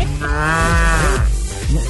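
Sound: cow mooing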